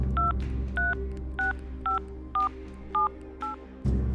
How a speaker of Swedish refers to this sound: Exmannen tar upp telefonen och ringer Lenas mobil.